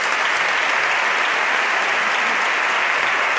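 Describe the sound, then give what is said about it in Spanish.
A strong ovation of dense, sustained applause from a large crowd as the pregonero (herald) enters and takes his seat behind the lectern, steady and loud throughout with no pauses and no voices rising above the clapping. “Irrumpe entre esta fuerte ovación el pregonero que va a ocupar su silla justo detrás del atril.”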